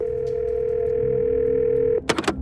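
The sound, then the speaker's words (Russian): A steady telephone dial tone hums for about two seconds, then cuts off abruptly, followed by a few quick clicks and clatters as the handset is lifted by Jean-Christophe Mitterrand, son of the President of France. “телефонный звонок трубку поднимает сын президента Франции Жан-Кристоф Митеран, который курировал политику Франции в Африке.”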